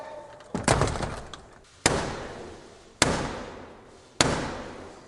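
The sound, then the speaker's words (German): The door of the House of Commons chamber is slammed shut in Black Rod's face with a loud, echoing bang, followed by three heavy, evenly spaced knocks on the door with her staff, each ringing out with reverberation. “vor der Unterhauskammer wird Blackrod, im Moment ist das eine Frau, wird ihr die Tür vor der Nase zugeknallt und dann hat sie so einen Stab, mit dem klopft sie dreimal an die Tür und dann wird sie eingelassen.”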